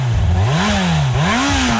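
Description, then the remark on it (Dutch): A Yamaha R1 motorcycle engine revs up and down repeatedly, its loud rasping pitch rising and falling in quick surges over a steady rumble, with no voices. “Dat, eh, is nou R1”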